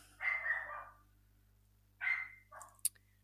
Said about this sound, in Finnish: Ja heitän tuota koiran haukuntaa näköjään tuonne taustameteliksi myös.